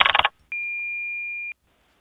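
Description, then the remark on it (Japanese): A single steady electronic beep lasting about a second, clean and fairly loud, from an answering machine signalling the start of recording a listener's message, after a brief burst of noisy sound and followed by quiet hiss. “さあ実況室にある留守番電話に吹っ込んでもらった みんなの悩みを部長が解決していきます大丈夫かな今年、はい、こんな感じでさ留守番電話お願いします”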